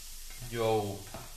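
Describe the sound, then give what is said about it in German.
A steady hiss of food being briefly seared in a hot pan runs throughout, briefly overlaid by a short voiced hum that rises and falls midway. “Das muss ich jetzt hier alles ein bisschen kurz anbraten.”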